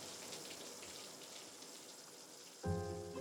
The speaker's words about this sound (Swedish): Bakom dörren hör hon röster. Någon skrattar högt och så det välbekanta susande ljudet av duschar.